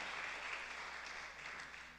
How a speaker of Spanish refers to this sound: Oh, dale fuerte las palmas al Señor. Dale fuerte las palmas al Señor.